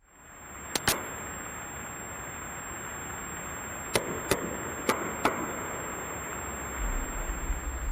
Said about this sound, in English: the Canadians heard banging noises at 30 minute intervals from under the ocean, and that changed everything. This is the sound that was heard.